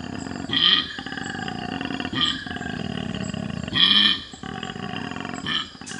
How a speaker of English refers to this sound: Did you hear it grunting and growling? I'm going to follow that sound to see if I can find the koala. This grunting noise is from a male koala. They usually call in the night, but sometimes you get lucky and you hear them in the day too.